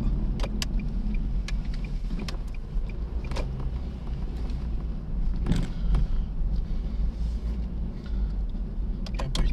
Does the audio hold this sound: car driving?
yes